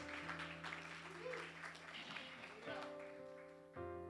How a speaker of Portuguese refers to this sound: Amém, igreja? Dê uma salva de palmas ao nosso Deus Todo-Poderoso.